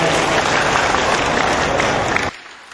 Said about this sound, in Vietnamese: và dành tràng pháo tay cho lời phát nguyện hay